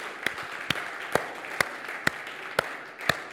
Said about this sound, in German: Komm, lass uns mal Gott einen großen Applaus geben.